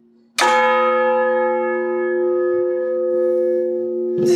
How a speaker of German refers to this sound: Das ist die, genau, wie hast gesagt, die arme Sünderglocke